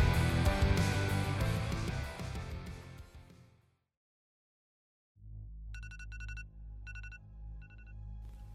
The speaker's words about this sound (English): I know you hear that. You know how I know you hear that? You set that alarm last night. Uh, you gonna pretend like you can't hear it. Okay. It's gonna keep ringing. It's still ringing. I know you still hear that.